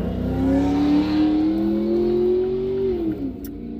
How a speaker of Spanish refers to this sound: eso que acaban de escuchar es un Mustang eh, GT, ¿qué? Es un carro bonito.